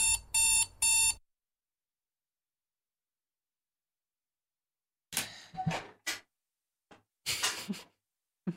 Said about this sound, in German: Freizeichen.